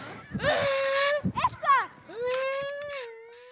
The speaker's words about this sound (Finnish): Jos mietit, että mitä tuo ölinä on, niin tollanen ääni tulee, kun huutaa ihan täysillä tyhjään limutölkkiin.